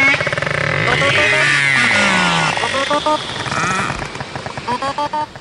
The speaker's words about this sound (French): Là, euh, je peux faire écouter du narval. Le narval, c'est ça, les dauphins avec des, avec des cornes.